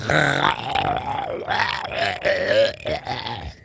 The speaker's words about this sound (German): Der Brust des Schneemanns dröhnt ein gurgelndes Schreien.